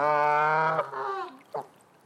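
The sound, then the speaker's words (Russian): A goose honks loudly, one long nasal blare followed by a shorter second honk and a brief clipped squawk. “вы поняли, наверное, о ком речь. Это кошмар с улицы Вязов, это гроза тарусы и, и других городов гусь”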